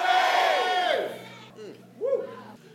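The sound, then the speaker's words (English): An audience shouts together in unison the words "I'm a woman of faith", a loud massed burst of many voices that fades out, followed by a few scattered, quieter shouts trailing after. “Shout, I'm a woman of faith.”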